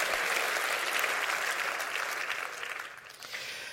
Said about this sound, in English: I want you to clap your hands real big. Say, that's why I'm in church today, Pastor.